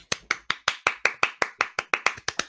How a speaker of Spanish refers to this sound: Muchas gracias, Lil Sushi, por seguirnos en Twitter. Mm, un aplauso.